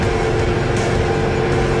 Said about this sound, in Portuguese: Confirmando aqui. Prontinho. Soltei minhas mãos. Então, ó, estou indo embora sozinho Trator funcionando, pulverizando aqui o meu café automaticamente.